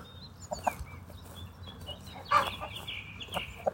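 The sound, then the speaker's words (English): A hen clucks repeatedly while laying an egg, in short, uneven bursts, with one louder squawking cackle in the middle, over a low outdoor rumble. “That's the sound of one laying an egg.”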